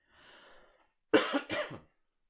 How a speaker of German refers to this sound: Entschuldigung, wie gesagt, Husten statt Räuspern.